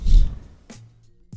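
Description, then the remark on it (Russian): A voice makes a single short, breathy "pyeu" sound at the start, imitating a transition sound effect used between news items. Fainter clicks and breaths follow in near silence. “Пьеу это, это звук для а, перехода от новостей, от новости к новости.”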